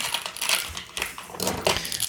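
Several dice clatter and tumble across a hard surface, rolled to draw prize winners, a burst of sharp plastic clicks and rattles lasting a couple of seconds, with no talking.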